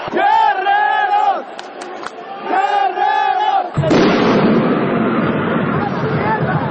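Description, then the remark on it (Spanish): A large crowd at a lucha libre wrestling match in Arena México chants and yells in loud unison, then rises to its feet and erupts into a sustained, roaring wave of cheers after a three-count pin. “Y entonces la Arena México se para para vitorear.”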